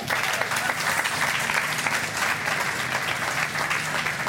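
Sustained audience applause, a dense crackle of many hands clapping at a steady, fairly loud level throughout, with no pauses and no distinct voices standing out.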